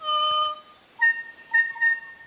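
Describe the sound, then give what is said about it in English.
A kokako, a New Zealand bird, sings slow, rich organ-like notes: one long sustained tone, then a few shorter swelling phrases after a brief pause. Clear, with no voices. “I see your kokako”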